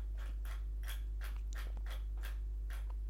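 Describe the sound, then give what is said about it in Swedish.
An old computer mouse clicks about seven times in a steady, evenly spaced rhythm, each click a brief scratchy snap, fairly quiet, over a constant low hum with no talking. “Ursäkta ljudet i bakgrunden, det är min mus som är skitgammal.”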